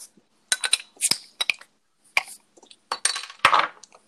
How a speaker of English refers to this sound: Let's let's pop those beers.